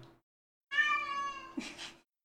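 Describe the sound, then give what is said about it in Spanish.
A female cat lets out one long, drawn-out meow, clear, ending in a short breathy trill. No one speaks over it. “Está full hablando la gata.”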